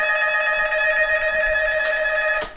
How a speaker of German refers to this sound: Das ist ja schrecklich, das klingelt hier unten. Das kann ich aber nicht rangehen, ich will Ihnen das jetzt weiter erzählen.